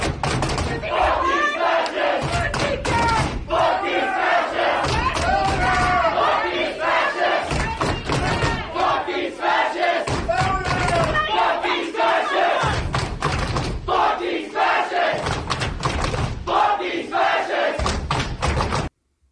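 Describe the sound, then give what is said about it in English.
A large crowd chants "Fascist!" in unison, voices surging together over heavy, regular drumbeats and thuds that repeat in a steady rhythm, loud throughout with brief pauses between chant phrases. “Just that drumming and rhythm is intimidating as hell, let alone fucking fascist, fucking fascist.”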